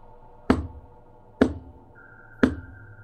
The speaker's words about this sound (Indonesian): Suara ketukan di pintu terus terdengar.